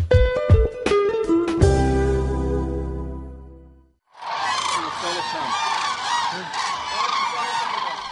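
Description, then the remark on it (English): A brief musical flourish rings out and fades to silence, then a loud, dense chorus of many cranes erupts, overlapping trumpeting mating calls continuing steadily from a large flock flying through morning mist over a lake in northern Israel's Hula Valley, migrating to breeding grounds in northern Europe. “Cranes fly through the morning mist over a lake in northern Israel's Hula Valley.”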